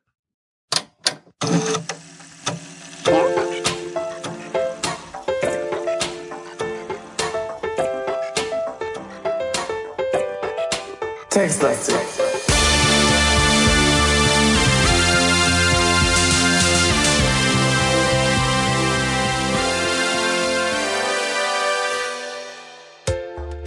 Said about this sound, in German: Das war's. Ich sag mal, der Hammer ist. Schick, oder? Ich finde, dass unser, also jetzt im Ernst, ja, ein Podcast mit Intro, ne? Das ist einfach. Neue Dimension. Das ist ein neues Level.